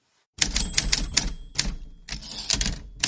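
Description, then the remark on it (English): Rapid mechanical typewriter clacking, a burst of irregular key strikes with a faint bell-like tone ringing through, loud, no voices. “Give us some typewriter”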